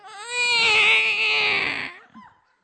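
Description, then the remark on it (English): A voice imitates a baby doll crying: one loud, high, sustained wail lasting about two seconds with a slight downward slide, trailing off into a brief soft whimper. “I like, totally became aware that something was crying. the first thing that came to my mind was it's just one of those baby dolls.”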